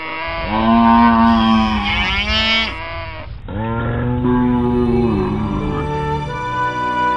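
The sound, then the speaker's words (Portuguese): Two long, loud cow moos follow one after the other, each a deep drawn-out bellow with a slight waver, clear with no talking. “As vacas.”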